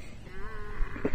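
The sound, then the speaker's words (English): A camel in a herd lets out a drawn-out, wavering groan with a bleating quality as tourists are about to mount the camels, over a low, steady background rumble. “there's a there's a herd of camels um, grunting and groaning, and some French tourists about to um, mount them, so they're all complaining.”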